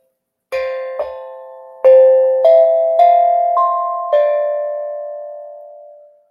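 A tongue drum plays a slow, gentle sequence of about seven struck notes, each ringing out with a warm, sustained tone that overlaps the next, fading softly at the end. No one speaks.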